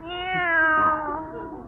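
A cat lets out one long, drawn-out meow that slowly falls in pitch, fairly loud, with no other sounds around it.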